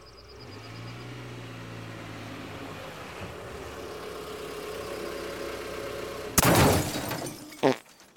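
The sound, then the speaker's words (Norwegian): A car engine rumbles steadily as the vehicle pulls into its regular parking spot and settles, then a sudden loud crunching burst is followed by a shorter sharp knock near the end. “Hun parkerer på sin faste plass, men når hun går ut av bilen, tråkker hun på en av de brente bollene som har havnet på parkeringsplassen.”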